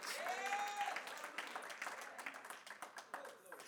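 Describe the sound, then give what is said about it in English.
A crowd erupts in loud applause mixed with shouting and cheering voices giving praise to God, the clapping dense and sustained before gradually thinning out toward the end. “Well, you ought to give God a loud shout of praise that He sent His Son to die for your sins.”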